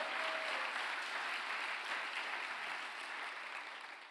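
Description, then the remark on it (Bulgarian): An audience claps together in a dense, steady wash of applause that holds for several seconds before easing off slightly at the end, with no one speaking over it. “О, ако ръкопляскаш, ръкопляскай, като че вярваш и че ти си един от тия хора.”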